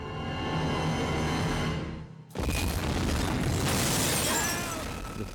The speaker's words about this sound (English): And then, you know, they barely get into the car, they don't buckle their seatbelts, and now we're into the 14 camera building explosion.